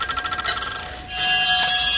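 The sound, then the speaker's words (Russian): An antique clock from Pushkin's time, of the kind kept in every room of Pushkin's apartment, chimes: a quick run of metallic ticks gives way to a sustained, bright ringing tone, with no one talking. “В каждой комнате есть часы пушкинского времени – они везде показывают правильное время, то время, которое и сегодня на дворе.”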